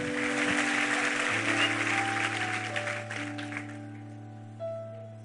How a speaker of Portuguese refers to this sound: Aplauda ele, vamos embora, vamos ficar em pé.